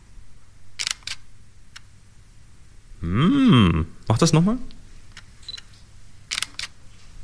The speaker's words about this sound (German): Alles klar, und du hast uns jetzt eine Kamera mitgebracht, die du einmal kurz hier uns anspielst.